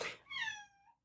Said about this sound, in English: that's my cat. She's she's overwhelmed, right? She, okay, she's telling me that I'm sharing a lot with you, but don't worry.